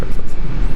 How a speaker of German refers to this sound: Das liegt hier gerade vorbei. Das ist ein Flugzeug wahrscheinlich, wow.